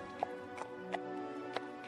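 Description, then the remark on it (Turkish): A donkey walks away from its master, hooves clopping at a slow, steady walking pace, about six evenly spaced hoofbeats, moderately quiet over a soft sustained musical drone. “Boynunu bükmüş ve yürüyüp gitmiş efendisinin yanından.”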